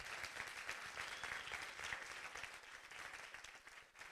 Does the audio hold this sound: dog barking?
no